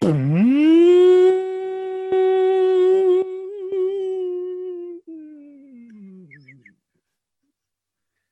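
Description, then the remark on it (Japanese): A voice imitates a blackboard eraser cleaner of the kind once found in schools, with a long, steady buzzing hum that dips low at the start, holds for several seconds, then sags in pitch and fades out. “あの懐かしき学校にあった黒板消しクリーナーの音。”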